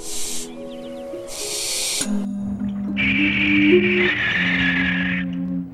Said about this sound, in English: The sound you just heard was that of a barn owl.